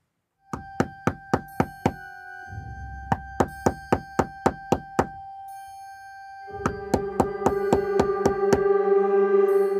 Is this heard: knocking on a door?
yes